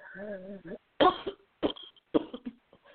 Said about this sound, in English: Bree coughed again, closed her eyes as she began to shiver.